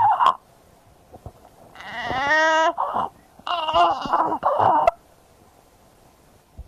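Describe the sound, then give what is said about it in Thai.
A young child cries in two loud bursts, with a harsh, high-pitched strained stridor noise on the in-breaths between sobs, then falls quiet. “เรามีเรามีเรามีคลิปอีกหนึ่งคลิปที่เป็นเสียงอันนี้ที่ลุงไรบอกเป็นสไตล์ดอเนี่ยนะที่เป็นในเด็กพอดีเลย”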